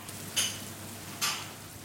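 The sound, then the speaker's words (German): Potato and flour dough, plucked in small pieces, frying with bacon and onions in a pan, a steady soft sizzle with two brighter hissing bursts as pieces hit the hot fat, with no talking. “Diese Masse kommt nun zum Speck und den Zwiebeln in die Pfanne.”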